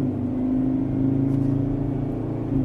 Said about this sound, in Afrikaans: Die 3.2 liter 5-silinder turbo diesel kom reguit uit die Ranger bakkie en is nogal uitdrigtig teen luier en stadspoed.